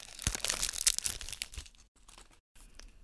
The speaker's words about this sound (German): Und jetzt nehme ich den raschelnden Glückskeks. Ah, also, ich habe ihn genommen. Wir öffnen ihn jetzt.